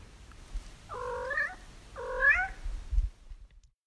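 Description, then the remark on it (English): Two drawn-out cat meows in a village in Abruzzo, one after another with a short pause between, moderately loud over a low, rumbling background with no talking. “And there's the cats.”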